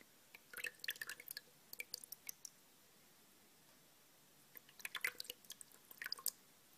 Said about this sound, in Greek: θα ξεπλένω τα μαλλιά σου χρησιμοποιώντας σκέτο νερό